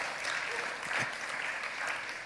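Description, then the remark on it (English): A crowd claps for Jesus, many hands blending into a dense, even patter of applause that holds at a fairly constant level throughout, with no one speaking over it. “Yeah, give Jesus a clap.”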